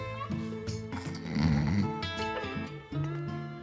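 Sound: man snoring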